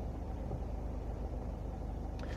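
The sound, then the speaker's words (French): A steady low engine rumble from an SNCF car rolling along very slowly, holding an even level throughout with no voices, just the continuous hum of the vehicle. “Eh ben, une voiture de la SNCF qui roule à deux à l'heure, normal.”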